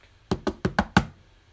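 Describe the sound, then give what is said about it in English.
Five firm knocks on the door of the Reading Oak Library in a quick, slightly uneven burst, each a sharp thud with a little resonance, followed by quiet. “And I knocked.”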